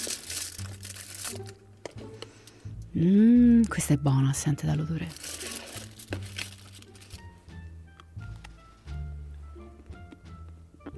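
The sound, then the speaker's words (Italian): Crinkly rustling of a dark chocolate with orange bar wrapper being unwrapped in short bursts, mixed with a person speaking and a loud, drawn-out murmur of appreciation partway through. “Mm, mi sento come il bimbo della fabbrica di cioccolato che scarta per cercare il biglietto d'oro.”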